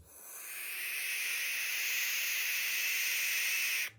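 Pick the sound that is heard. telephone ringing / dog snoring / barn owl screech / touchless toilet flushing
barn owl screech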